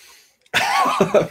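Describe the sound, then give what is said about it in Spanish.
After a brief hush, a loud, rasping deep breath is drawn in before speaking, breathy and slightly throaty, ending in two short gruff bursts. No words are spoken. “me gustó, me esa respiración inicial. Es este, así este como casi casi para entrar en meditación.”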